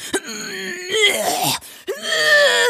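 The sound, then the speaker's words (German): A voice imitates the strained groaning of bodybuilders posing on stage at a contest: two long, tight, pushing moans with a short break between them, fairly loud, sounding like heavy effort. “Die stellen sich immer hin, als müssten sie eine Kackwurst festpressen oder sowas.”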